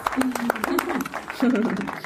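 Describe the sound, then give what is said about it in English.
Rapid hand clapping, irregular and fairly loud, mixed with voices chattering and cheering underneath, lasting about two seconds like a short burst of applause. “can you drop in those clapping hands?”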